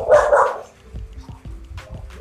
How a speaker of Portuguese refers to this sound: Calma, cachorro. Fica em casa.